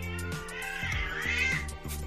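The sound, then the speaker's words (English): A cat meows loudly and insistently, a drawn-out wavering yowl with rising and falling pitch, over a low steady hum. No one speaks. “Kitty has something to say about that.”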